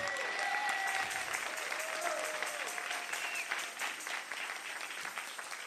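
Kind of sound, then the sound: crowd, louder audience applause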